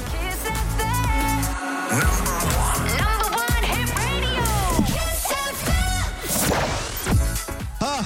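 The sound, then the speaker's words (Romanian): A busy radio jingle fills the whole stretch: layered musical tones, sweeping pitch glides and swooshing effects, with sharp percussive hits and a steady loud level throughout. “Atât de tare m-a prins videoclipul încât ai văzut că am început să vorbesc pe jingle.”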